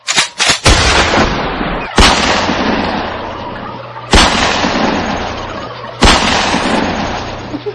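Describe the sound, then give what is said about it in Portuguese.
Loud shotgun blasts fired at a turkey: a quick burst of about three shots, then three more single shots spaced roughly two seconds apart, each with a sharp crack and a long fading boom. “Aguenta aí que vou pôr a minha pingarda ali.”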